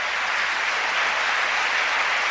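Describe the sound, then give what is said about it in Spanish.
An audience claps loudly and steadily for the Lord, a dense wash of many hands applauding with no voices standing out. “Démosle ese aplauso fuerte al Señor.”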